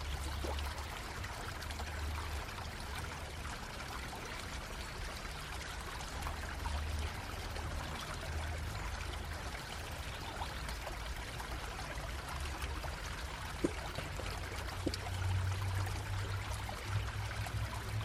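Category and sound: nature, flowing river water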